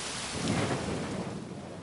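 nature, rolling thunder

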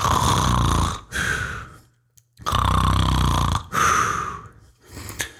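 human body sound, loud human snoring

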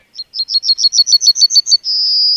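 bird, yellowhammer song

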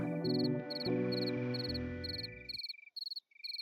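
insect, crickets chirping

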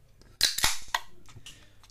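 food or drink, beer can being opened

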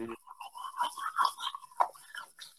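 household object, brushing teeth with toothbrush

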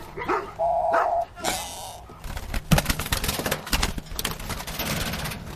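animal, st. Bernard dog barking

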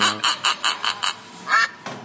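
animal, duck quacking

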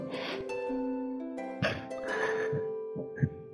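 human body sound, coughing

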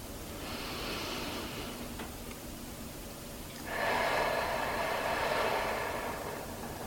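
human body sound, deep breathing

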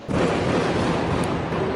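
impact, bursts of gunfire

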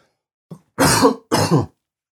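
human body sound, cough and throat clearing

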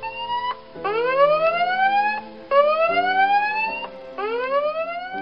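sound effect, alarm siren sound effect

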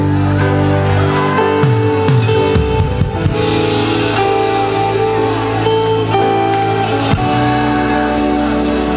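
crowd, audience shouting in worship

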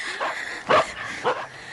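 animal, dogs barking

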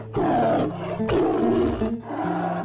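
sound effect, lion roar

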